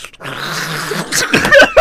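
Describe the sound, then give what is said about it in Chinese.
A voice actor imitates a donkey's panting bray: a drawn-out, wheezy breathy tone followed by a few harsh, rasping honks that grow louder toward the end. “请给我驴子的喘息声。”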